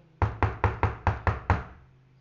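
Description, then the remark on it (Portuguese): Seven quick, evenly spaced knocks on a wooden door, fairly loud, each a sharp thud with a short resonant decay, then silence. “o lobo surgiu e bateu na porta da casa de Cícero”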